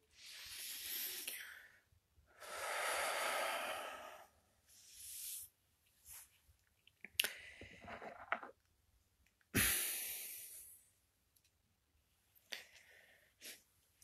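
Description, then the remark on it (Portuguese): Slow, deep breaths: a few long, airy inhales and exhales with quiet pauses between them, plus small rustles and clicks. No one speaks. “Voltaremos ao aqui e ao agora, especialmente depois de uma, pelo menos de uma respiração profunda.”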